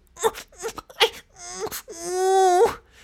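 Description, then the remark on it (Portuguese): A single voice mimics sexual moaning: a few short, breathy moans followed by one long, drawn-out rising moan, fairly loud, with no ordinary speech. “Não é gemer, é tipo fazer aqueles barulhos de sexo, sabes?”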